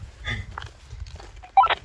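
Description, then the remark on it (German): Low, rumbling noisy crackle runs throughout, then a short, loud burst near the end with brief electronic tones, as a walkie-talkie keys up with transmission noise while people try it out. “Was sagt man in so einem Walkie-Talkie?”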